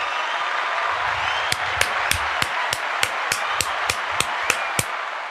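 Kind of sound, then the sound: crowd, applause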